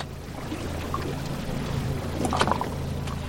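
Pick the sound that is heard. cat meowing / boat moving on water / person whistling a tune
boat moving on water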